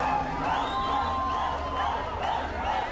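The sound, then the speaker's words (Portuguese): A large crowd in and around hot-water pools in Caldas Novas, a dense, steady wash of many voices with scattered shouts and whoops rising above the din, loud and continuous throughout. “Uma multidão dentro e fora das piscinas de água quente.”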